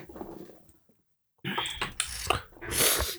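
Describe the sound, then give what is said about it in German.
A short pause, then a run of sharp, hissy nasal sniffs from a runny nose, four or five quick bursts, ending in one longer, louder snuffling inhale. “Oh Mann, meine Nase ja, läuft, gut, ey. ich bin nur am Schniefen.”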